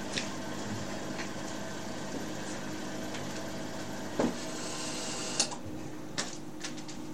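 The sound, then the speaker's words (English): A heater runs with a steady whirring hum for several seconds, then a couple of sharp clicks as it is switched off and its higher hiss drops away. “let me switch off the heating”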